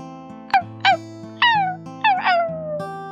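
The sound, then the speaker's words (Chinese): A small dog, looking at a bone on the ground, barks several times at an old farmer: high-pitched yips that each slide downward in pitch, coming in a quick irregular run over a steady, soft musical background with no talking. “小狗看着地上的骨头，又对着老农夫叫了好几声。”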